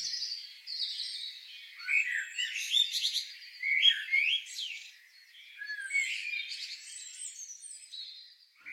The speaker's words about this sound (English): Have you tuned into birdsong more in the past year than ever before? Perhaps you're noticing more birds or simply hearing them more. It's nature's great spring soundtrack. But why do birds sing?